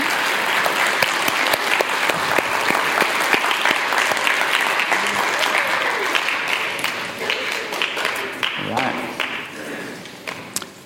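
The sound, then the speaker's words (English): An audience applauds students who gave a demonstration on amino acids and protein folding, in a sustained, dense round of clapping that holds steady for about ten seconds before gradually thinning out, with a few scattered claps lingering at the end. “So let's give my students a round of applause for coming out today.”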